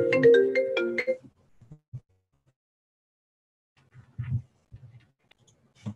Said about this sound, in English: Now my phone's gonna ring.